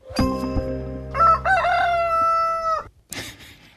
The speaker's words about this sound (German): ich wollte zur Einstimmung auf das Thema mal so ein Tönchen hier spielen. Darum geht es nämlich. Es geht um Hähne.